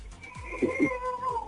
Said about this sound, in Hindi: तुम ऐसे करो पीछे जाके बच्चे को उठाओ और उसको जरा चुप कराओ ठीक है ओके अल्लाह हाफिज बच्चा रो रहा है